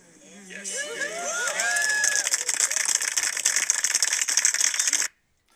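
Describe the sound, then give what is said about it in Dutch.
Gravel crunches underfoot on the roof of the former Vroom & Dreesmann building in Alkmaar, in a dense, steady crackle that builds over the first second, continues for about four seconds, then stops abruptly. Faint voices are heard at the start. “Vandaar het grind op de achtergrond.”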